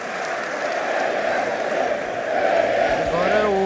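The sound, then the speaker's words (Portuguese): A large party congress audience rises to its feet and applauds Luís Montenegro in a dense, continuous wash of clapping that holds steady and swells slightly louder toward the end, where a brief voiced cry rises above the noise. “primeiro momento em que o Congresso se levanta para aplaudir Luís Montenegro, depois desta referência de que para o PS eh, só há um culpado, que é eh, Passos Coelho, Cavaco Silva, ou agora ao 25 de novembro”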